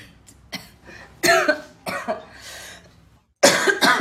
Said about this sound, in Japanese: すいません咳が出てしまいました